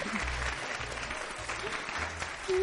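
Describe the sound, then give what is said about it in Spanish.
An audience claps for the storytelling group Colectivo Tusitala after a children's story, steadily for a few seconds, a dense wash of many hands with no single claps standing out, moderately loud throughout and swelling slightly at the end. “Un aplauso, por favor, para el colectivo Tusitala.”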